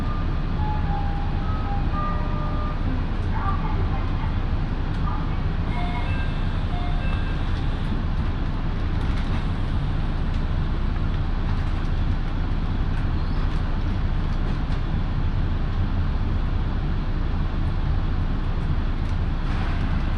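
A local train on the Minobu Line, Japan, runs along the rails from Minobu to Ichikawa-Daimon, heard from inside the carriage as a steady, loud low rumble with faint clicks and occasional thin, high tones over the drone.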